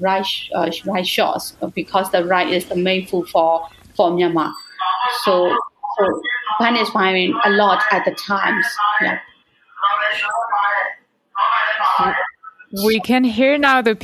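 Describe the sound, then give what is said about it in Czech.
Mobile bread vendors' loudspeaker calls ring out from passing bicycles on a street in Myanmar, an amplified, slightly tinny voice repeating sing-song phrases loudly, broken only by short pauses. “To, co slyšíte, jsou pojízdní prodavači. Mají bicykly s amplionem a prodávají chleba.”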